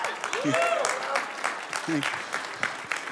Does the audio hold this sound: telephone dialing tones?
no